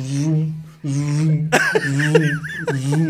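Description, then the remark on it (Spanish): A voice imitates a lightsaber's droning hum, holding a steady buzzing tone with sweeping swells and clashing bursts, loud, over about three seconds. “Yo, tú me dices los sables de luz y yo lo único que escucho es.”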